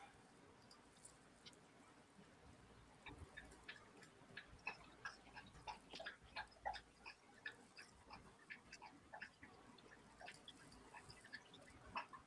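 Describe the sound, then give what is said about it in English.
A pit bull dog laps water in a quick, steady rhythm of soft wet clicks and slurps, fairly quiet, with no one talking over it. “Who's lapping water?”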